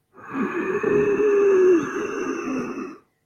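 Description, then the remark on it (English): A slow, steady breath drawn through a constricted throat using the throat muscles, a technique called oceanic breathing, producing a soft, hissing, ocean-like rush that swells and fades over about three seconds, with no talking. “Again, next level after that, if you can use your throat muscles, they call oceanic breathing.”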